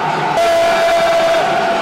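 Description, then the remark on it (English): A dense, steady roar of a large stadium crowd filling up minutes before kick-off of a night football match involving Everton, murmuring and chattering together, continuous and fairly loud throughout, with a faint sustained tone running underneath. “The crowd filling up. Big night at the end, dear listeners.”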